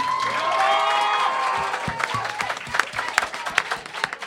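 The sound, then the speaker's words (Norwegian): An audience at Psykologidagene bursts into applause for the event's board as they come up on stage, dense clapping mixed with crowd noise and a few cheers, then thinning into sharper, scattered individual claps toward the end. “En stor applaus.”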